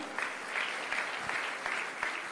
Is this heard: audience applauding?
yes